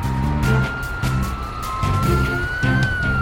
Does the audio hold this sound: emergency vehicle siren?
yes